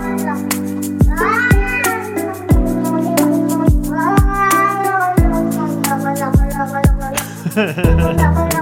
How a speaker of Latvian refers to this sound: Labi, nu, viņš saka, aloga loga loga loga loga. Šis ir jau saremiksēts. Lūga, Lūga Kaķītis ar uh, simfonisko orķestri.